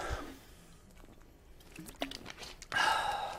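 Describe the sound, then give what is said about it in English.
A quick slurp of a drink: a brief wet, airy suck near the end, preceded by soft mouth and handling noises, otherwise quiet. “I'll let you read that for a second while I take a quick slurp.”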